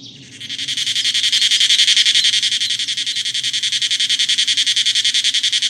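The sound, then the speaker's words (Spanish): A cicada sings from high in a tree to attract a mate: a loud, shrill buzz that rises quickly and holds steady throughout, with a rapid pulsing throb. It is continuous, with no voices. “Al igual que las abejas, las cigarras viven relaciones muy intensas, pues para tener su primer encuentro deben esperar 17 años bajo tierra, hasta que una noche suben a lo alto de un árbol y cantan para atraer a su amor.”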